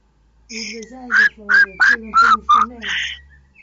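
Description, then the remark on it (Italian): A pet bird named Cico chirps in reply in a quick run of about five short, bright calls, fairly loud, set between a longer opening and closing note. “Beh, eh, ma senti che ti risponde. Eh, mi, eh, eh, io so, so la lingua degli uccellini.”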